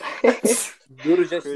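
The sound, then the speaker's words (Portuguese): A sharp sneeze bursts out, a quick intake followed by a loud, hissing expulsion, and then someone starts talking right after. “Ah, saúde,”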